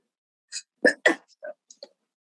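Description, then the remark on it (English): A sharp sneeze bursts out in a quick double explosion, followed by a few soft breathy sniffs and catches of breath. No one talks. “Bless you.”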